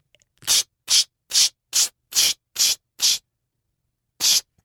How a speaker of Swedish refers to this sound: Ja, fast jag gör inte på ska jag göra på armarna? För du bara sprayar bara på nacken? Nej, alltså, jag, jag, jag, gör så här på, jag, jag börjar så här vid axlarna.